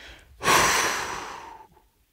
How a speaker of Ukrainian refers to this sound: Коли ти робиш постріл, тобі потрібно контролювати своє дихання. Ми це робимо або на повному видосі, тобто ти